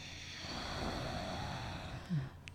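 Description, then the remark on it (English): A slow, steady breath drawn in through the throat with the mouth closed, as if fogging a mirror, making a soft, hissing rasp, with a slight catch near the end. “you act like you're fogging a mirror but your mouth is closed, so you breathe in”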